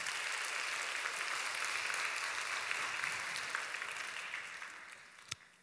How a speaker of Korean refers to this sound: 하나님께 영광의 박수 한번 올려드리도록 하겠습니다.